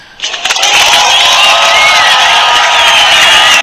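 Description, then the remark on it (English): A loud, dense burst of audience applause mixed with crowd cheering at the start of the Go Buckets debate segment, holding steady for about three seconds before cutting off abruptly, with no one talking over it. “Clap for us right there.”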